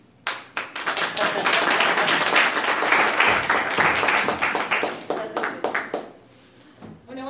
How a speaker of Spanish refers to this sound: Entonces recibámosla con un fuerte, fuerte aplauso.